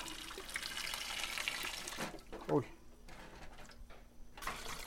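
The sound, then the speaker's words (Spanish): Cold water splashes and runs for a couple of seconds, a broad hissing pour over vegetables, followed by a short clatter of vegetables shifting in a pot or bowl, then quieter kitchen handling. “Ahora le vamos a tirar el agua a nuestras patallas para que se nos haga más fácil la limpiadita de la cáscara.”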